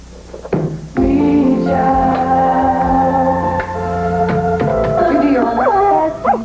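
A dog named Higgins, needing to be let out, whines and whimpers in long, high, wavering cries that rise and fall, broken by a few short yips and barks, and continues for several seconds.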